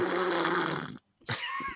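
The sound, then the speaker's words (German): A screw-top lid on a jar of nacho cheese dip is twisted open: a long gritty scraping rasp, a brief silence, then a second shorter grinding turn with a faint ring. “Das ist ein Käsedip, ein Nacho-Käsedip so, äh, mit Schraubverschluss.”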